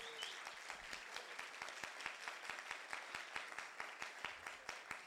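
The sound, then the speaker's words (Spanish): Strong, sustained applause from a crowd giving Jesus a loud round of applause, a dense wash of many hands clapping at an even level, with sharp individual claps popping out throughout. No voices are heard. “Alguien le da un aplauso fuerte a Jesús por eso.”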